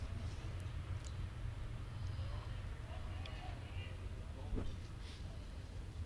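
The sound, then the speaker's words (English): A steady low rumble of a train rolling past during a night baseball game, the first train of the night, continuous for several seconds with faint clanks on top, heard under a quiet outdoor ambience. “There's your train, Dick.”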